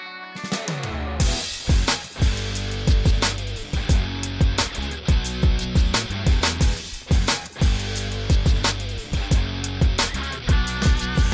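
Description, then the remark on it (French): A French rap song's instrumental intro plays loud: a steady hip-hop beat with punchy drum hits, deep sustained bass and layered backing, with no vocals yet. “Donc c'est avec … de ….”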